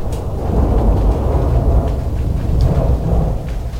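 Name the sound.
thunder rumbling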